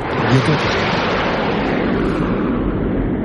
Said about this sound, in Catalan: Per exemple, el, el so dels avions de, una pel·lícula que anirà a veure el, el Capità Kik d'aquí una estona.